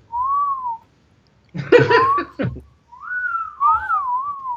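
A person whistles a few clear, wavering notes, pauses for a short burst of laughter or chatter, then whistles again with sliding, warbling tones, fairly loud.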